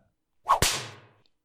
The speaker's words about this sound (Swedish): Plötsligt snärtade tomtefar mycket elegant till med piskan och träffade nissen rakt över ansiktet, som pep till, föll till marken